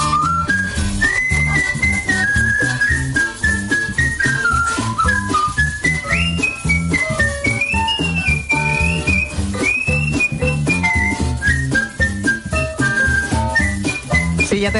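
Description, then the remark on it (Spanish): Skilled, melodic whistling by a professional whistler, a world whistling champion, carries a fluid, ornamented tune with quick trills and slides, sounding clear over a steady musical accompaniment with a rhythmic beat throughout. “a quien escucha silbar es …, lo hace bien”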